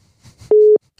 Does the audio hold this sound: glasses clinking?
no